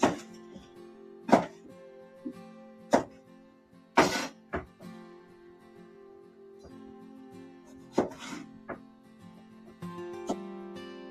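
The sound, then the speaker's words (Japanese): A knife chops through eggplant onto a board in about six sharp, irregularly spaced strikes, some doubled, over a steady low tonal hum. No one speaks. “はい、今、ナスビを、切って、いっております。”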